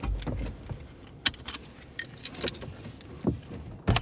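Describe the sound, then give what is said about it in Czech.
Shuffling and clicks inside a parked car, with a few sharp metallic jingles like keys and a door being handled as someone climbs out; no one speaks. “A vylezte ven z auta.”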